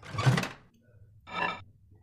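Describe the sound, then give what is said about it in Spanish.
A microwave door shuts with a firm thunk as breakfast is put away in it, followed a second later by a shorter clack, with no one talking. “Guardaré tu desayuno en el microondas por si quieres comer algo más tarde.”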